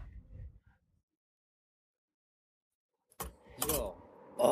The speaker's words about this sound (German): Oh, schmeiß das doch nicht so auf den Tisch, das knallt so im Mikro. Mein Gott, der ist neu, der Tisch.